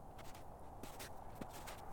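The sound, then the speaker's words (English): Soft crunching footsteps of a man walking through snow during a snowfall, a handful of uneven steps over a couple of seconds, fairly quiet with no voices. “He stomped the snow off his boots and removed his hood and opened his mouth.”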